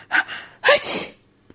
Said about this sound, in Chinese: 小龙抽抽鼻子，不停的吸气。他眯起眼睛，打了一个巨大的喷嚏。啊啊啊啊！